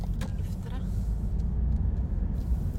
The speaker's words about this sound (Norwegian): Mens jeg kjører på svingete veier forbi bedehus, hav og en motorsykkelklubb